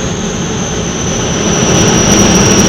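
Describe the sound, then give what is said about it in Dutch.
A loud, steady jet engine roar with a high whine on top, swelling slightly as an aircraft approaches to land, heard on its own without any voices. “Als ze ze maar laten landen.”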